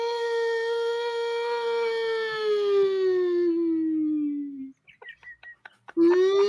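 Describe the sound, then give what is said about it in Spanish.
A voice mimics an ambulance siren with one long, loud sustained wail that slowly slides downward in pitch, followed by a few short choppy vocal bursts and the start of another rising wail. “le haga como que le hagas como ambulancia.”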